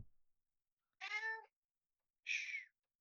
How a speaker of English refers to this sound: Is that a kitty? Yeah, yeah it's a kitty.